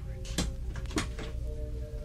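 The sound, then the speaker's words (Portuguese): A door being closed, heard as two sharp clunks about half a second apart, over a steady low hum of room tone. “Entre e feche essa porta”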